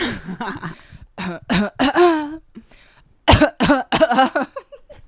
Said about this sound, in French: En fait, j'ai envie de tousser